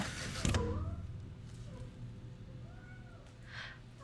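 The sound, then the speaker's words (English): A feral black cat gives a couple of soft, drawn-out meows a moment apart, following a brief creaking clunk, with no one talking. “Just a brooding, divorced woman in her mid 30s talking to her only friend, a feral black cat.”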